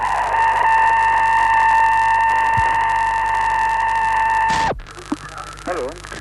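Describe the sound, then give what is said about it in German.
A steady, piercing radio tone from the Sputnik 2 satellite, with buzzy overtones, holds unbroken for about four and a half seconds over static, then drops away in a quick downward sweep before faint voices follow. “Sputnik 2 mit seinem Piepen und der Hund Leica war hier angeblich zu hören im SWR 2 Archivradio”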